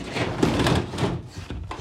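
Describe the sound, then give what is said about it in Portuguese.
A window roller shutter being opened, a continuous rattling, scraping clatter of slats that swells and dips unevenly for under two seconds, with no voices. “Deu-me só um segundo que eu vou aqui abrir o store.”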